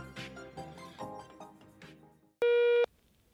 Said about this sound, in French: Laissez-nous un message vocal sur Facebook et nous vous publierons. La parole est à vous après le bip sonore.